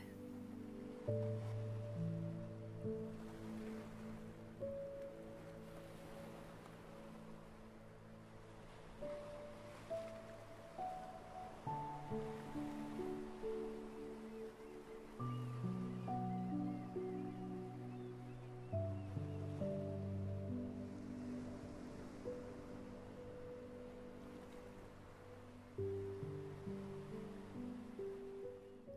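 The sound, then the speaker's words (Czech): Soft ocean waves wash ashore in a steady, gentle rhythm, mixed with calm sustained ambient music tones; no voices are heard. “každým dalším nádechem se více a více napojuješ na uklidňující energii mořských vln.”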